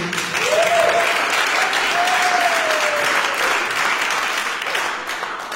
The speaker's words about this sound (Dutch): Hey, zullen we een applaus geven?